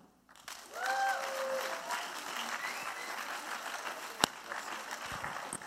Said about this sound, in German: Tut ihn auf der Bühne willkommen heißen mit einem tausend Applaus.